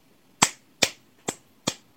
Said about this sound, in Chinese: 此处有稀稀拉拉的掌声。 对对对，此处只有一个人的掌声。